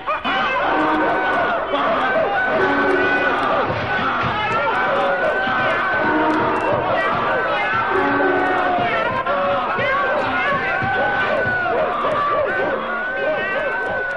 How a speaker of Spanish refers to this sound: Y la que allí se armó fue horrible. Rebuznos, ladridos, cacareos, maullidos, gritos.